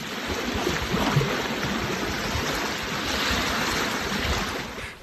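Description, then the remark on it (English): Small waves of Issyk-Kul, a large lake in northern Kyrgyzstan, lap steadily against the sandy shore on a bright summer afternoon in a continuous washing rush, with gentle swells rising and easing and no voices present. “On a bright summer afternoon, waves lap the shore of Issyk-Kul, a large lake in northern Kyrgyzstan.”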